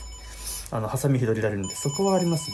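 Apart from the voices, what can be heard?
telephone ringing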